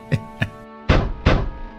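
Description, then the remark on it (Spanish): Four knocks on a door, two light quick taps followed by two heavier, booming thumps with a short ringing decay, fairly loud, with no voices. “¿Quién será? A esta hora, golpeando la puerta.”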